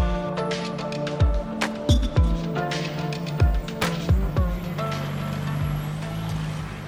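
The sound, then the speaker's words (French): Busy city street traffic on Boulevard de Ménilmontant in Paris's 20th arrondissement: a steady wash of engine hum and road noise, with repeated low thuds and rumbles as vehicles pass, and faint clatter in the background. “Boulevard de Ménilmontant, Paris 20e.”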